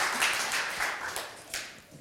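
An audience applauding a person at a preaching gathering, a steady wash of many hands clapping at moderate volume for about two seconds, with no voices over it.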